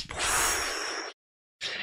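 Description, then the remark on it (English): Dry rubbing of hands together: one sustained swishing stretch of about a second, a brief pause, then a second burst of rubbing starting up. No one speaks. “If you're listening on the podcast, that was the sound of me rubbing my hands together like in the cartoons when there's like delicious food on the table”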